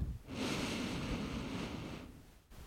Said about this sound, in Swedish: Och så kan vi ta två djupa andetag tillsammans. Vi andas in genom näsan.